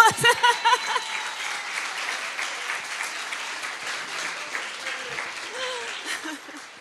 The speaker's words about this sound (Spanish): Denle un aplauso a Dios.